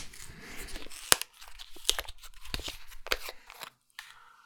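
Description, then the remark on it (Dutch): Tearing and crinkling of a carton of a still, non-carbonated drink being opened: a few sharp snaps and rips separated by rustly pauses, with no voices. “Goed, ik ga het ehm, pakjes openmaken.”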